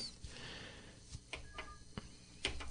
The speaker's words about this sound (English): we do have a phone call so let's see if I can actually take this phone call without hanging up on them